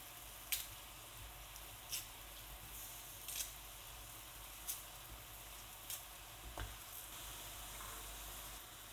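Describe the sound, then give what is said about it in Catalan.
Potato pieces for a cream soup sizzle steadily in a pot, a constant crackling hiss broken by several scraping clicks as they are stirred every second or so, then left to cook about 10 minutes. No one speaks. “remenem i deixem fer la patata uns 10 minutets.”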